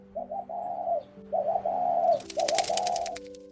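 A dove, sent out from the ark by Noah, coos in three soft, low, warbling phrases, each about a second long, with a quick fluttering burst like wingbeats over the last phrase. No voices.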